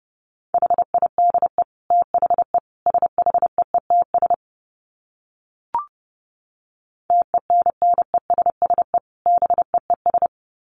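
Morse code at 30 wpm: a steady mid-pitched tone keyed into quick dots and dashes, sent in two runs separated by a pause broken only by a single soft click. No voices.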